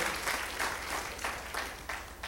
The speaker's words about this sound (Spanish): sí, apláudele al Señor